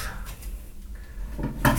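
Kitchen handling sounds as a cutting board and knife are taken out while cooking: soft rummaging and a drawer sliding, then a sharper wooden clack near the end.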